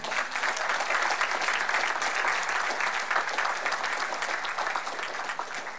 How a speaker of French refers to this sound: Ah, on peut applaudir.